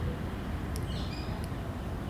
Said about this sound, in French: Le matin de notre rencontre, la ville était calme et on pouvait entendre les oiseaux chanter.